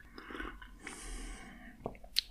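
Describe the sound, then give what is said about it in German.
A quiet sip of hot coffee: a soft airy slurp drawn in for about half a second, followed by small mouth clicks and a swallow. “leicht schlürfen war ich dabei. Und ohne Schlürfen hat man halt viel mehr Angst vor der Hitze von diesem Kaffee.”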